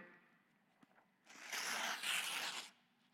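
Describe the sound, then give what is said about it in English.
A single sheet of paper is torn in one steady, raspy rip lasting over a second, fairly loud, preceded by a couple of soft handling clicks with no one talking. “It can be destroyed or hurt, torn apart pretty easily. One piece of paper can.”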